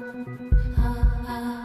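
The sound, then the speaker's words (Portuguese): A deep, booming human heartbeat thumps three times in steady rhythm, loud, over a low sustained hum that continues after the beats fade. “Essa máquina que nos desafia a cada batida do coração.”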